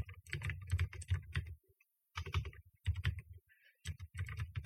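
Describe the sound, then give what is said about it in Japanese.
Close, crisp keystrokes on a computer keyboard, typed with a microphone right in front of it while searching something online, come in quick flurries, broken by a few brief pauses, with no one talking over them. “マイクが目の前にあるんで、あの、キーボード叩きづらいっていうのはありますね。”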